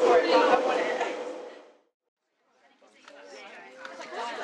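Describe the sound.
A busy, steady murmur of many overlapping voices inside a metro cuts out briefly to near silence, then returns slightly softer.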